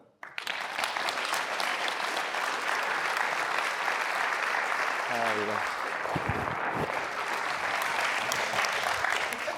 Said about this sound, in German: Potenziell könnt ihr jetzt schon im Klatschen drin bleiben, denn wir begrüßen Sie direkt auf der Bühne